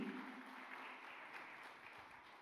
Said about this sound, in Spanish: Denle un aplauso fuerte. Claro que sí.